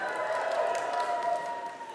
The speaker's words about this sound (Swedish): Men är det någon som vill ställa sig upp i den åldern? Kan jag få ett jubel av er?